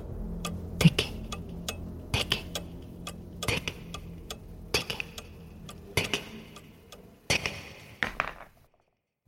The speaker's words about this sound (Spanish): Empezó a escuchar algo que golpeaba contra el suelo, algo ligero, pequeño, como si fuesen uñas que repiquetean contra un mueble.